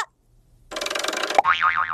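A jack-in-the-box spring boing: after a short silence comes a buzzy rattling burst, then a sharp pop into a loud, wobbling twang that warbles up and down repeatedly.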